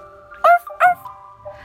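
A puppy, Biscuit, gives two quick, high-pitched yips about half a second apart, with a thin, steady whimpering whine drawn out around them and trailing off afterward.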